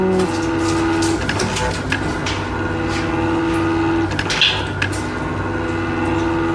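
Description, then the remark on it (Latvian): A chemotherapy infusion pump, filmed during a chemotherapy session, hums steadily, its mechanical drone broken by soft, evenly spaced whirring pulses, with no voices present. “Kā tā mašīnīte dūca, ka viņam bija tas čūčū, čūčū, čūčū.”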